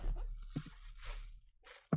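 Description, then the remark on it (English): A quiet, scratchy creaking of a gaming chair shifting as the person sitting in it moves, a few drawn-out groans, ending in a short low thump. “I just heard it creak.”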